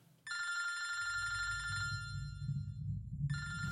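A telephone rings with a bright, buzzing electronic trill, one long ring followed by a pause and the start of a second, over a low rumbling background.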